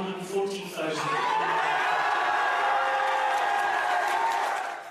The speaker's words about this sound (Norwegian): Men det var nei-sida som kunne juble til sist.